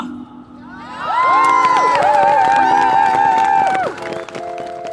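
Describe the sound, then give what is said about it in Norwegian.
An outdoor crowd of at least 100 demonstrators, standing tightly together outside the Storting, Norway's parliament, chants "slutt og kutt" and cheers together, many voices rising in a sustained, harmonized shout for a few seconds before fading back into a general murmur of people. “Utenfor Stortinget står det minst 100 demonstranter tett sammen.”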